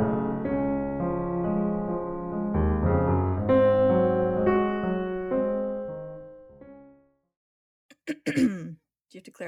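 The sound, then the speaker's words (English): Warm tonal music plays and fades out, then after a short silence someone clears their throat in a few rough, raspy bursts. “clearing my throat at the start of every one of these.”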